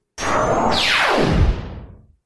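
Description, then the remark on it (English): A loud sci-fi eye-laser blast fired from Led's eyepiece: a whirring, noisy rush whose tone sweeps steeply downward for about a second before trailing off, heard alone with no voices. “With a loud whir, lasers come out of Led's eyepiece.”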